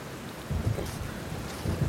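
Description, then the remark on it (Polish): Low thunder rumbles in a couple of heavy swells over a steady wash of rain, fairly quiet, with no voices. “Myśleliście, że to może jest grzmot kolejny, który rozległ się.”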